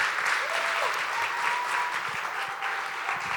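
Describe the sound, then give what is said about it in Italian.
A large church audience applauds steadily to welcome a reverend, a dense wash of many hands clapping at once that holds at an even, fairly loud level throughout, with no voices standing out. “E quindi Chiesa vi chiedo di accoglierlo un applauso e di aprire i vostri cuori.”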